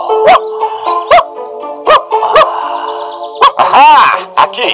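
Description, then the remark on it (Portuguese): A chained dog named Max barks again and again after sniffing at the ground, sharp repeated yaps at an uneven pace, with a longer burst of agitated barking near the end over a faint tonal background. “Depois de um tempo, ele parou e começou a latir sem parar.”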